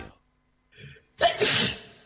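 A single loud sneeze: a short breathy inhale building up, then a sharp explosive burst of noise that trails off quickly. No one speaks.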